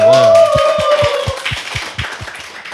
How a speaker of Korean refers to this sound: 아, 박수 쳐야 되는 네.